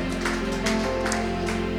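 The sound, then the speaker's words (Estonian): A church audience claps hands for Jesus in a steady, even rhythm during singing, about four claps over sustained music with held tones, the clapping moderately loud. “plaksutame käsi, amen, amen, plaksutame Jeesus sulle, halleluuja.”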